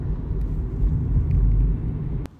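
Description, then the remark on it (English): A car coasts slowly down a detour road while regenerating its energy, giving off a steady, low rumble of road and engine noise with no one talking. The sound drops off abruptly just before the end. “So we'll just kind of cruise, coast down nice and slow, let the car regenerate its energy, and bada bing, bada boom, we'll be back on the freeway in no time.”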